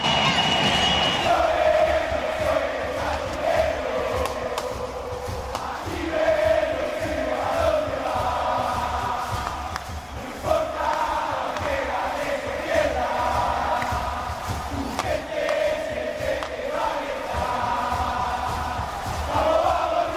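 A huge football crowd of River fans roars in celebration of Barco's goal in the clásico against Racing, putting River 1–0 ahead, a dense sustained wall of cheering and chanting with rhythmic swells of voices rising and falling throughout.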